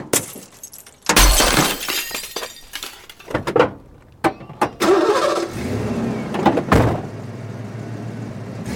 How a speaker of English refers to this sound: Ashley reaches into the bed and pulls out a hammer. She smashes the driver's side view mirror.